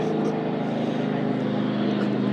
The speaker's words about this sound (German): Hallo Hubschrauber.